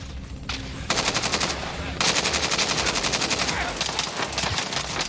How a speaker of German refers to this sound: man hört, es wird hier ballern, das tönt alles recht hektisch. Wo befinden wir uns da?